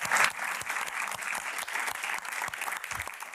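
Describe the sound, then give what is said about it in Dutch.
An audience of students in a lecture hall claps steadily for a guest lecturer after his lecture, dense overlapping hand claps forming a continuous bright wash of applause that holds at a fairly even loudness throughout, with no voices standing out. “Ehm, mag ik een warm applaus alstublieft.”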